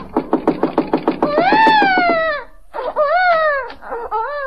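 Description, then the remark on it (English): A baby left alone in a house cries: a quick run of choppy, sobbing bursts swells into a long, high wail, then after a short pause a second drawn-out wail follows. “I hear you. Well, can you beat that? leaving a baby in a house alone.”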